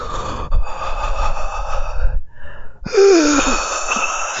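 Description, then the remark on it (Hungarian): A voice imitates a man's heavy, raspy breathing heard in a film, with long drawn inhales and exhales and a brief pause in the middle, loud and alone without any talk. “És így, és így próbálok így hátra nézni, hogy, hogy mi a fene zajlik itt, és korrekt, e, így lélegzett a csávó”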